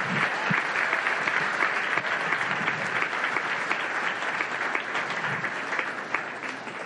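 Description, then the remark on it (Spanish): Sustained applause from an audience in honour of Jesus Christ, a dense wash of many hands clapping steadily at an even level for several seconds with no voices rising above it. “¿Cuándo le pueden dar un aplauso de honra a mi Señor Jesucristo, a su Señor Jesucristo?”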